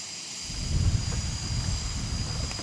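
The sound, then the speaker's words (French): A jet aircraft engine idles before takeoff: a steady low rumble with a thin high-pitched whine running continuously over it, no voices, unchanging throughout. “On est à combien de temps du décollage environ”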